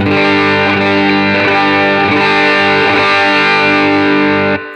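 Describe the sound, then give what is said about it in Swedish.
A heavily distorted electric guitar, its mid control turned up slowly toward maximum, sustains a thick, buzzing chord with a strong midrange push, loud, ringing steadily for nearly five seconds before cutting off abruptly. “Och, och så kör jag, om jag ökar upp då midden, eh, mm. om du spelar så ökar den till, eh, mm. upp, sakta upp till max.”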